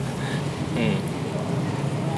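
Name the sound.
cars driving past outside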